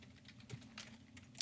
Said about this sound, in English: That sounds like a typing class.